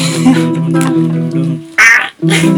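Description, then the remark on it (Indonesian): Someone imitates a crow, making a run of loud, nasal, drawn-out caws, broken by a short breathy burst before one more caw. “Suara gagak, suara gagak bisa.”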